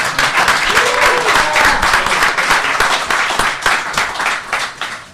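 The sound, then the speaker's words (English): An audience applauds loudly and steadily for about five seconds, a dense wash of many hands clapping that tapers slightly at the end, with a brief faint voice rising under it early on. “I want to thank everyone for joining us, and let's get a round of uh, applause.”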